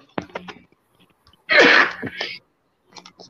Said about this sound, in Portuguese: Eita. Saúde aí, velho.